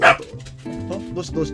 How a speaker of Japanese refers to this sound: 犬の声が入りましたねすいません